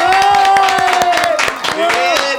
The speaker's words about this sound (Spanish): Y pues vamos a recibirlo con un fuerte aplauso. Claro que sí.